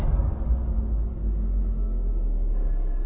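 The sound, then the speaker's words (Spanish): A steady, low rumble of distant car traffic hums on without pause, muffled and far off, with no voices or nearby sounds standing out. “Solo se sigue escuchando a lo lejos el sonido de los autos.”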